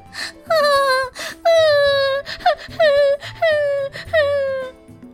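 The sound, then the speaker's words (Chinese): The little fox Erdan cries after being pulled out of a river, voiced by a person: a series of loud, drawn-out wailing sobs, each sliding down in pitch, broken by short gasping breaths between them. “二蛋哭个不停。”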